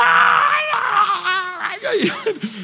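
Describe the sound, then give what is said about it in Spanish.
A voice imitates a child screaming: a loud, high-pitched, sustained wail that wavers, then breaks into shorter sobbing cries. “Él gritando.”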